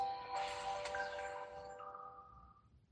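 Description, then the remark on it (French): A short, faint electronic startup jingle from an old smartphone being switched on: a few bright, chiming synth tones layered into a shimmering chord that swells and then slowly fades out, with no talking. “Écoute ta petite musique.”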